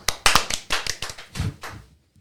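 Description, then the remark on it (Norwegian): Brief applause from a few people for a story from Bischofshofen about a man who survived a fall: a quick burst of irregular, sharp claps that thins out and stops within about two seconds. “ja kort, kort, applaus for det òg.”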